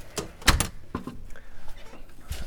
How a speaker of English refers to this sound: Out the front door today, not the side door. That probably sounds a little different.